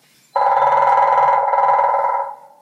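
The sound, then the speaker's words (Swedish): A grey-headed woodpecker drums in one very fast, buzzing roll lasting about two seconds, so rapid it sounds like a vibration, loud with no other sounds around it. “Ni hör gråspetten, den är lite vibrerande sådär, väldigt snabb.”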